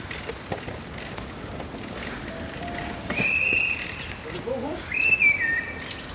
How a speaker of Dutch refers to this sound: Hoor je de vogels?